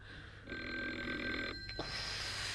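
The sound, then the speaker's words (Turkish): An unanswered home telephone rings with a steady electronic trill, starting after a brief pause and continuing for about a second before a short break, then resuming faintly. No one speaks. “hala çalıyor. İnşallah başka bir şey değildir.”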